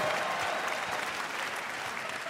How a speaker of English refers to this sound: Yes! Applaud that joke, it's fantastic. It's a good joke.